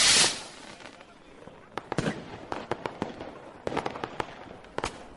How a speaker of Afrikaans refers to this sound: Toe steek hulle die vuurpyle aan die brand en hardloop vinnig terug tot agter die houtwa. Skaars het die wagte weggehardloop of die vuurpyle skiet een na die ander die lug in waar dit in allerlei kleurballe ontplof.